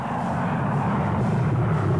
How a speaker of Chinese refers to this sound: 不光撞了车，这阅兵式上还有什么呢？飞机人字形飞越广场上空。